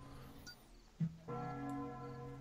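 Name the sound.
church bell ringing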